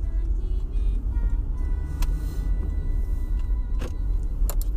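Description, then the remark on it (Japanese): A steady, heavy engine and road rumble from inside a moving car in traffic as a bus gives way to it, with a few brief sharp clicks and thumps rising over the continuous low drone. “バスに譲ってもらっちゃいました。”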